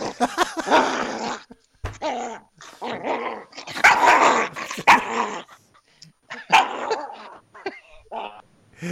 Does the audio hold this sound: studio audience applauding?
no